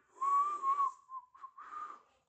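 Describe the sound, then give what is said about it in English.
A person whistles a short, wavering tune, the pitch sliding and warbling over about two seconds, with no talking. “See, I'm, I'm whistling to find the tickets.”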